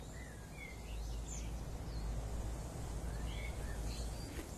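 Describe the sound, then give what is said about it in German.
Scattered bird chirps and short tweets, fairly faint, over a steady rushing of wind in a forest. No one speaks. “Du hörst die Vögel zwitschern und das Summen der Bienen.”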